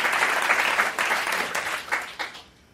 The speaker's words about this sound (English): So I just want to have another round of applause for our 2017 Black History Month Pantheon nominees, inductees.